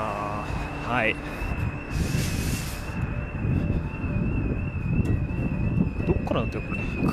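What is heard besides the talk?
car alarm beeping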